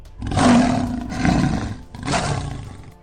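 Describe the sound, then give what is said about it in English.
A big cat roars loudly from the top of a building, a deep, rumbling growl rising and falling in about three long surges, with no one talking. “King roars.”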